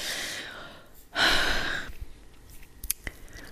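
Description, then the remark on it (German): Someone draws a long breathy inhale, then takes a sharper, louder gasping breath, followed by a few faint mouth clicks and quiet breathing. “Muss ich erstmal atmen.”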